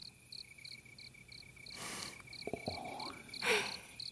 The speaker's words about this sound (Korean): 산 주변 귀뚜라미는 해가 다 지기 전에 우나 봐요. 아마 짝을 찾고 있을 거야.